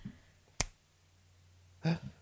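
A single sharp, crisp finger snap rings out in near silence, followed about a second later by a brief, duller burst of sound.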